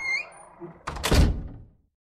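A door creaks briefly on its hinges, then swings shut with a single solid thud, fairly loud with nothing else around it.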